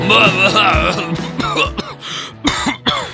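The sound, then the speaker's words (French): Rough, raspy coughing from a man who has just quit smoking, in several bursts, the last two sharper and more forceful, over a strained, wheezy voiced tone throughout. “Ouais, bon, il vient juste d'arrêter la clope, hein. du coup, il tousse encore un peu.”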